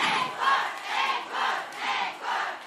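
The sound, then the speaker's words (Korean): A large concert crowd chants in unison for an encore in the rain, a rhythmic call repeated about five times at a steady pace, loud and energetic, with no other voices over it. “앵콜을 원하세요?”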